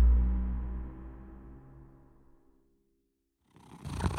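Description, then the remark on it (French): A cat, Gatouille, holding catnip, purrs in a low, steady rumble that fades gradually over a couple of seconds, followed by a moment of silence and then a short burst of brighter noise. “Allons Gatouille, pose ça s'il te plaît. L'herbe à chat n'est pas bonne pour ta santé.”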